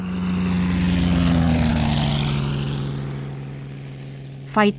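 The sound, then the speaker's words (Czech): The engine of a Soviet Lavochkin La-5FN propeller fighter aircraft drones steadily overhead, its deep tonal hum sliding slightly in pitch as it passes, before a brief voice cuts in near the end. “Lavočkiny La-5 FN, to byly jedny z nejzdařilejších stíhacích letounů, které mohl sovětský letecký průmysl našim letcům nabídnout”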